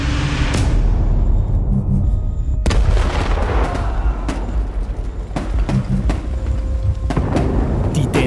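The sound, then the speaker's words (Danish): Relentless rifle fire and booming shell explosions as Danish positions are attacked at four in the morning, bullets and shells hammering ramparts and soldiers, a dense barrage of sharp cracks over deep rumbling blasts, continuous and loud throughout with no voices. “Geværkugler og granater hamrer ned over både volde og soldater og smadrer alt i nærheden.”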